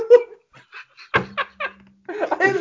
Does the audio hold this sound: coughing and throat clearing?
no